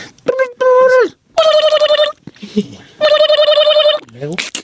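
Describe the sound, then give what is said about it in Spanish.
A voice imitates a telephone ringing: several sustained, warbling high-pitched bursts with brief pauses between them, loud, plus a few short vocal sounds in the gaps. “Eh, el chiste empieza sonando el teléfono y eh.”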